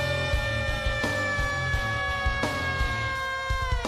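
A WCW wrestling entrance theme, Perry Saturn's, plays loud and up front, with sustained bright synth chords over a driving, pounding low beat and periodic crashing hits, no voices.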